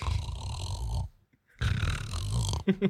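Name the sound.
voice imitating light snoring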